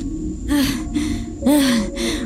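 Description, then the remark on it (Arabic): A voice pants hard and fast, four heavy breathy gasps in quick succession, loud, imitating a boy badly out of breath as he comes running toward a woman. “وإذا الغلام يظهر راكدا باتجاهها وهو يلهث”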